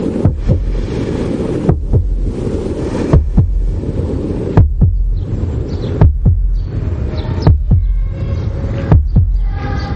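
A heartbeat inside a person's body, heard by someone whose head is under water with only the nose out to breathe: about eight deep, muffled thumps land at a slow, steady pace over a constant low, rushing hum, with no voices.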